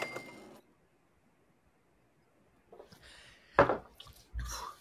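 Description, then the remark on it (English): Glass liquor bottles clink together in a toast: a ringing tap, a quiet pause, then a few sharper knocks and clatters near the end, with no voices. “Here we go, man. Cheers. Cheers.”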